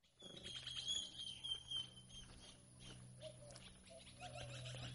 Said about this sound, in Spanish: ¿Escuchas? Ese es el sonido de la libertad. Así suena mi finca en las mañanas. Para mí es el sonido de mis sueños, de lo que anhelé por tanto tiempo,